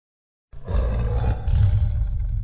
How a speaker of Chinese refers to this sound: 他的话刚刚才说完，洞子里面就隐约传来了一个奇怪的兽吼声。沈文熙有些诧异，旁边众人个个都面面相觑，均有些困惑。 那是什么声音？ 沈文熙问。 好像是老虎的叫声。